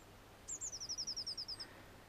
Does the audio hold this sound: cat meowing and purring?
no